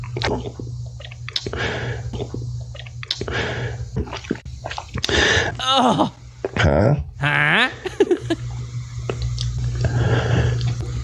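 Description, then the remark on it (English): Wet, squishy gulping sounds repeat in irregular bursts, mixed with strained, rising vocal squeaks and gasps, over a steady low hum, with a couple of brief exclamations from a voice. “Oh, he's gulping off camera.”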